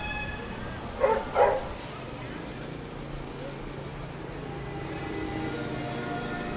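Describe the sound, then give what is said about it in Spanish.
A dog lets out two quick barks in close succession as dogs pass along a street by a café terrace, then falls quiet while a steady low street rumble of traffic continues underneath. “En este momento justo, cuatro perros acaban de pasar.”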